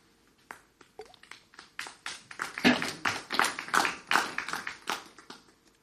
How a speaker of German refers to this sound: Danke für den Applaus.